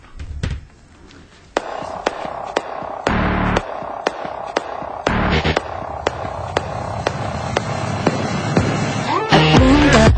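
A pop song plays on the radio station Super 98.1, its intro built from sharp, punchy percussive hits over a steady droning synth layer, loud, building toward a denser beat at the end with no voices.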